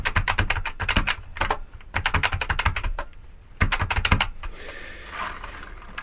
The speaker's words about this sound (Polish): Ośmiopunktowa klawiatura brailleowska. Hmm. No ja Państwu pokażę, jak ona działa. Zróbmy sobie test.